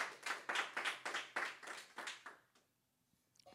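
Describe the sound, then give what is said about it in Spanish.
An audience applauds loudly for the Lord, many hands clapping in steady, rhythmic bursts for about two seconds before the clapping dies away into near silence. “¿Cuántos le pueden dar un aplauso fuerte al Señor?”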